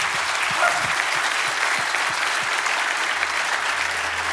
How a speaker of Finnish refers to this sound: Ja ne oli ne suomalaiset taputukset